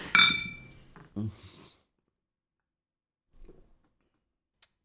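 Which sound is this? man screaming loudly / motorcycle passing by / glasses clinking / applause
glasses clinking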